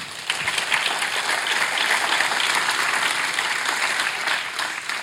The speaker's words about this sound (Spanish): Un aplauso para el rey.